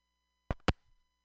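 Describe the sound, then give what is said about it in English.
A cell phone call connection cuts out with two short, harsh bursts of digital crackle close together, then falls to near silence over a faint steady electronic hum. “I lost you. You're back.”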